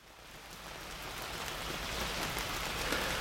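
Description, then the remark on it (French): Steady rain drums on a surface, a dense, even crackle of countless drops that swells slightly louder over a few seconds, with no voices present. “On dit de certaines pluies qu'elles martèlent, d'autres qu'elles tambourinent, d'autres qu'elles crépitent.”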